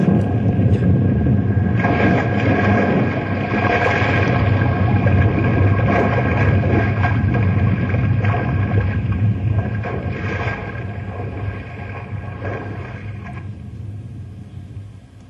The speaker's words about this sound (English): She's gone. She's cracking. That shot done at this here iceberg is cracking in two.